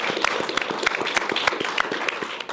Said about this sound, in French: Et le public, bien sûr, qu'on peut évidemment applaudir. Merci de le rappeler.